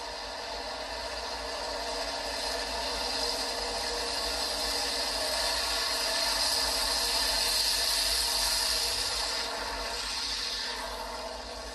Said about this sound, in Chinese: 那我们刚刚听到的声音，它就是属于火车台中港线的声音。